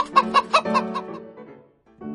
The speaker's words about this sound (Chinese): 胡伯点了一只母鸡，厨师拿着斧子去追母鸡，所以母鸡过马路。咕咕咕咕咕咕！